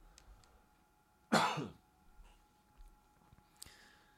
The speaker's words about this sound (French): Désolé, je vais tousser, je reviens.